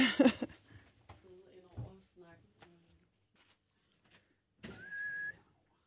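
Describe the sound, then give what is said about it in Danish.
Furniture creaks in short, uneven groans, ending in a sustained high-pitched squeak lasting under a second, moderately loud. “høre, at min den knirker lidt. Knirker helt vildt.”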